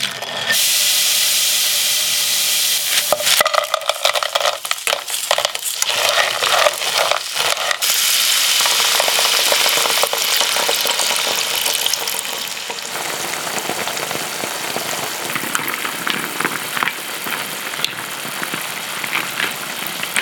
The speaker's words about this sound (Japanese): 今朝は今が旬アサリの酒蒸しのいい音それではお聴きください